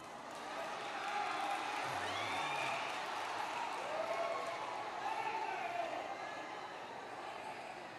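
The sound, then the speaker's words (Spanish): An audience breaks into steady applause, a dense, even wash of clapping and crowd noise that holds for several seconds without a clear break. “Hermanos, ¿serían ustedes capaces, los escasos, de dar otro aplauso de nuevo?”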